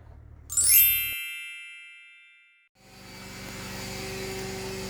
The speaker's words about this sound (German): Aber wir haben für euch noch einen Original Baustellenmitschnitt und den blenden wir euch jetzt mal ein.